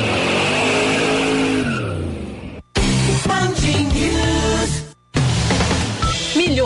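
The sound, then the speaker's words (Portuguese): A loud car engine revs and accelerates hard, its pitch sweeping up and down, cut into three bursts separated by brief silences, with a hint of tire squeal. “terá duas opções de potências, a versão de motor elétrico de 271 CVs e o modelo com dois motores elétricos e 544 cavalos, que é capaz de acelerar de 0 a 100 km por hora em apenas 4 segundos.”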